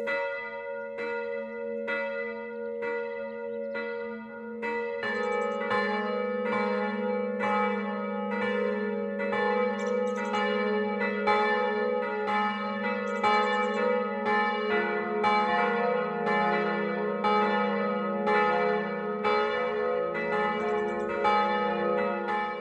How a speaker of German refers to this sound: Es ist 12 Uhr. Das Mittagsläuten kommt heute aus der Pfarrkirche St. Stephanus in Massing.